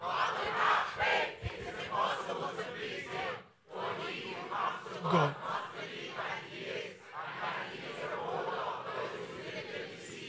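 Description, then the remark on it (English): A large audience reads a Bible verse, chapter 11 verse 6, aloud together in unison, a loud, dense wash of many voices that carries on steadily for about ten seconds, with one brief pause early on. “Read it out as loud as you can. Okay? Everybody.”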